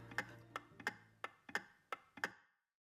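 A pendulum clock ticks steadily, about seven crisp mechanical clicks in an even tick-tock rhythm, with a faint low hum underneath and no voices.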